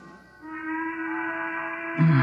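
The Burke Platt factory whistle blows a long, steady, piercing tone that holds for about two seconds and swells louder at the very end, with no one talking over it.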